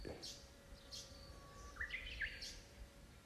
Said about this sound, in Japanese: なんか今僕が住んでるところはとても面白くてもしかしたら聞こえてないかもしれないんですけどこう虫の音がすごいあるんですよねスズムシコオロギじゃないけどでそこに鳥も鳴いてたり